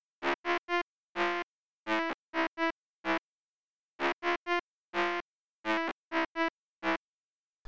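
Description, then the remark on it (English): A buzzy, pitch-modulated FM synthesizer voice plays alone in two phrases of short, choppy harmonic bursts, each note stepping to a different pitch with a slightly distorted, metallic edge. “So, you know, that probably just sounded a little distorted to listeners, but uh, here's what the pitch modulated voice sounds like by itself.”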